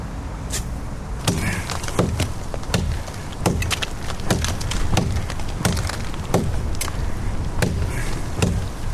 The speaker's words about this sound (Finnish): Tämä on jotain niin uskomatonta, että tämä on pakko esitellä mikrofonillekin. Täydellinen esine. Mä aion nukkua tämän kanssa tästä lähtien. Tämä on vesuri.